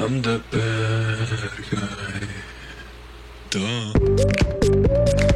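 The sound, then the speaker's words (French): A voice sings sustained, wavering notes into a running electric fan, the tones chopped and warbled by the spinning blades, over a steady mechanical hum; the singing resumes louder after a brief pause. “et il chante dans son ventilateur.”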